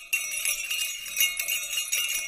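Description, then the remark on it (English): Deep jingle bells shaken continuously, a full, bright jangle of many small metal bells with a slightly deeper ring, steady with small surges in loudness and no voices. “Uh, I mean, the third sounds like what would be on a reindeer. It has that sort of depth, which I like.”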